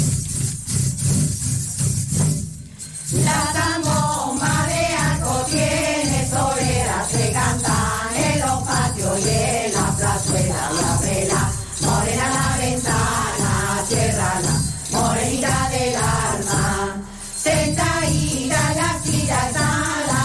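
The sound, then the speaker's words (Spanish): A Christmas carol sung by a group of voices over a steady low zambomba drone and jingling tambourine, with no guitar, the music loud and continuous throughout. “Una zambomba y pandereta. Y no hay guitarra.”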